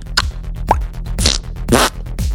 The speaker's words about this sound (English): How you like those sound effects? That's my Foley guy. Give me another fart.